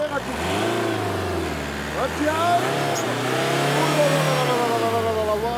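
A car engine revs steadily, its pitch climbing, dropping back, then swelling up again in a second long rev before easing off, a loud continuous mechanical drone throughout.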